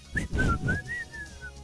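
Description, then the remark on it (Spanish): Someone whistles a short, wavering tune of a few gliding notes, moderately loud, over a low rumbling background with no talking. “Quedó silbando.”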